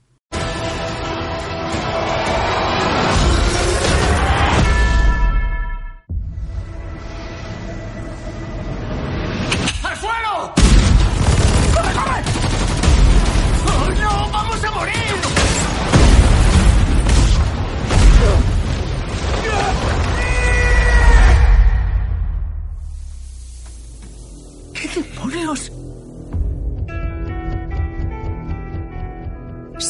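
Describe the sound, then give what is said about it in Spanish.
Trailer audio for The Mummy, the reboot of the Mummy saga starring Tom Cruise: loud, dense cinematic music with deep booms and explosive hits, broken by sudden drops to near silence, with voices mixed in and a quieter tonal stretch at the end. “nosotros vamos a escuchar el tráiler.”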